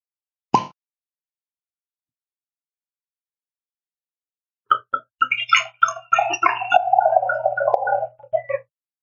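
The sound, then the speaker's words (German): A single sharp pop, then after a pause a run of squeaky, creaking twists and small clicks as a corkscrew is wound into the cork of a bottle of 2017 French AOP wine, fairly loud, with no talking. “Okay, Moment, ich muss währenddessen hier meinen Waschenöffner auch bei mir in den Korken reinwinden und drehen.”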